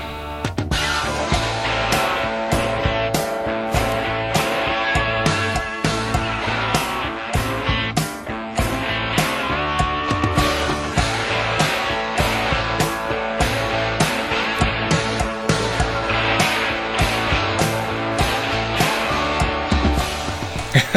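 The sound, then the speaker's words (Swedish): An electric guitar riff from a 1978 rock song plays over a steady, driving drum beat, loud and full for the whole stretch, with no voices. “Vi ska lyssna på ett gitarrriff ifrån “…” med … från 1978.”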